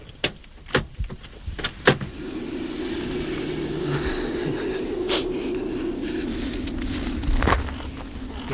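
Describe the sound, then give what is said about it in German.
A few sharp mechanical clicks and knocks, then a car engine settles into a steady low idle, with occasional clunks as the car, skis fastened on its roof, comes to rest and parks in a long parking lot leading to a viewpoint. “Hier parkte Peter den Wagen.”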